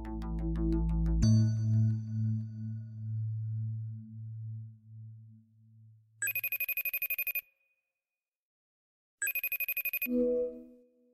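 A telephone rings twice, each ring a buzzy trill of rapid high pulses lasting about a second, following a low sustained musical chord that slowly fades out. No one speaks.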